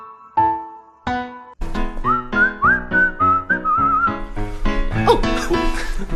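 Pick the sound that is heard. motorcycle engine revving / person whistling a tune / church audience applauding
person whistling a tune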